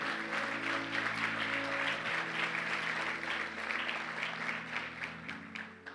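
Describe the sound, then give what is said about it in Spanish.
An audience bursts into steady, sustained applause offered to God during a sermon, a dense wash of many hands clapping at once, with a low sustained musical drone running beneath it throughout. “Dale un aplauso a Él.”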